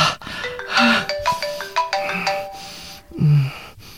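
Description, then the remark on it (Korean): A phone ringtone plays a bright, stepping electronic melody of short tonal notes, clear, with low thumping sounds around it and no one speaking. “지금 받아봐요.”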